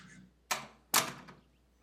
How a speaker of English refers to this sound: Jim suddenly swung the door open